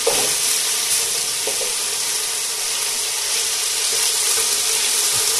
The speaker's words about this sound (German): Hört er? Und ist immer so. Ja, ne? Kann man das da so langsam reinschieben, dann kocht das nicht direkt los, sondern brät schön. So, ein bisschen locker machen und dann braten lassen.